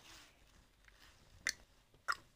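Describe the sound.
A voice imitates the hooves of a walking pig clicking on gravel: two sharp, crisp mouth clicks spaced about half a second apart, fairly loud against a quiet, faintly hissy background.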